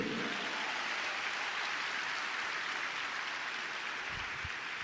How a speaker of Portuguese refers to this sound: Alguém pode aplaudir o Senhor por isso aqui?